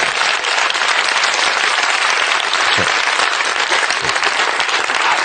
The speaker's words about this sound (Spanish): A veces aplaudís unas cosas que no os entiendo.